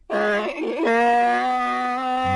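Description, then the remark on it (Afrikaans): A voice imitates a donkey's bray: one loud, drawn-out cry with a wavering pitch dip near the start before settling into a steady, nasal drone, alone. “Donkies balk en kinders roep uitbundig.”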